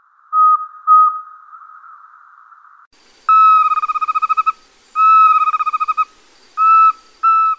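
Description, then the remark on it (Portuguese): A least pygmy owl calls alone: two short tonal notes, then clear, fairly loud bursts of rapid, evenly pulsed hooting trills separated by brief pauses. “Agora o som da caburé miudinho.”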